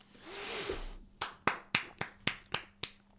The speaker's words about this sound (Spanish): Eso ha sido un aplauso porque a mí se me había olvidado decirlo.